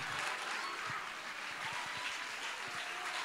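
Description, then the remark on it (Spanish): An audience at a church service breaks into steady applause, a dense, even wash of many hands clapping at a constant loudness for a few seconds, with no voices standing out. “Dale un aplauso.”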